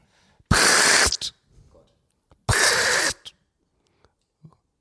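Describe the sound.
A person imitates a lesser short-toed lark call with two loud, dry, rattling bursts of about half a second each, separated by a short pause with faint breaths.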